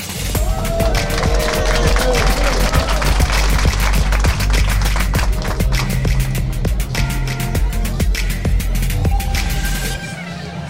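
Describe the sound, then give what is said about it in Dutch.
A loud, busy crowd at the Foute Kerstruienborrel, a Christmas drinks party in Café Vest, with overlapping chatter and frequent sharp clinks and knocks cutting through a steady low rumble throughout. “En het klinkt hier heel gezellig, want er is hier ook een kerstborrel gaande.”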